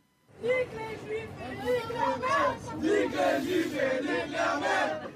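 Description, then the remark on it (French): A crowd of voices chants antisemitic chants loudly in unison in the Paris metro, rhythmic, shouted phrases rising and falling without a break for about five seconds, with a rowdy, raucous edge. “On y trouve par exemple des mineurs, parfois impliqués dans des affaires particulièrement marquantes, comme ces chants antisémites dans le métro parisien.”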